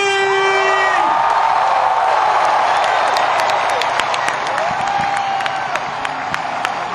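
A big festival crowd roars and cheers continuously for a band, with dense clapping and scattered high whoops and whistles rising above the steady wall of noise throughout.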